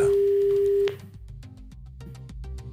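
A loud, steady telephone ringing tone from a call being placed live on RTL radio holds one mid pitch for just under a second, then cuts off, giving way to quieter rhythmic music with regular ticking beats.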